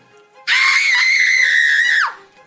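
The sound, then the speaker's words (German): A single loud, sustained scream, apparently coming from outside, cuts in abruptly and holds steady for about a second and a half before breaking off with a falling tail, heard alone against quiet background. “Und während ihr euch noch umsaht, hörtet ihr plötzlich einen Schrei”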